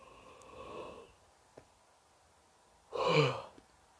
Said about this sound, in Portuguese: Desculpa tá bocejando. Ai, não é culpa minha. É culpa do meu corpo.